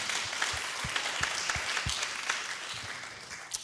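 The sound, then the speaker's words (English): A crowd applauds steadily, many hands clapping in a dense, continuous patter at moderate volume, with no voices over it. “Yeah, you can clap for that.”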